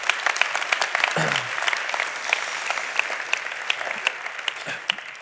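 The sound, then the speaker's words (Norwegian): An audience applauds the announcement that healing rooms will be held every Saturday starting in 2014, many hands clapping in a dense, crackling patter that holds at a fairly even level throughout, with a brief low murmur of voices early on. “Det må dere gjerne klappe for, for det syns jeg er veldig stilig.”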